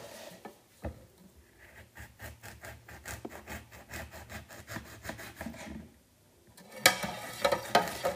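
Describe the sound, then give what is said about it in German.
A knife saws back and forth through a large lemon, cutting slices to garnish a glass of lemonade, in a quick, steady series of soft rasping strokes, then pauses before a final burst of sharper, crackly cutting. No one speaks. “Ähm, dieses Geräusch, wenn man es aufschneidet, ich finde das immer so schön.”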